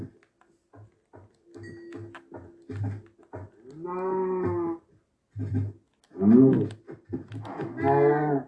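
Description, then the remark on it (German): Several drawn-out cow moos from a video game, loud, arrive one after another in the second half as the cows are being bred, preceded by a series of short, soft thumping game sounds. “Das sind beide entstandenen Kühen, machen wir auch nochmal ein Baby.”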